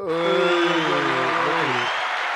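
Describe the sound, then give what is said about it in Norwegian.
A short, loud burst of applause welcoming a new guest, a steady wash of clapping lasting about two seconds, with voices whooping and cheering over it. “en kort applaus”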